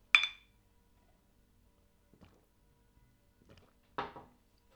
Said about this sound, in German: Ja, dann so. komm, komm, lass uns mal anstoßen.